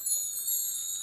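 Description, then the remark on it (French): A bright, shimmering chime effect rings steadily for about a second, with high, glittering tones like a magical sparkle. It plays alone and fairly softly, with no voices. “eh oui, c'était des paillettes sonores”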